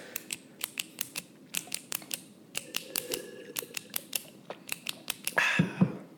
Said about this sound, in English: Now you're clicking your pen.